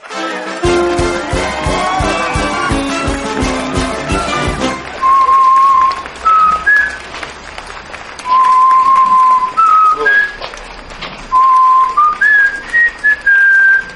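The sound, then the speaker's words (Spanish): A parrot named Loro whistles the FC Barcelona (Barça) club anthem in three clear phrases of stepping, rising notes with short pauses between, following several seconds of dense, busy tapping noise. “denuncian a un loro que silba el himno del Barça.”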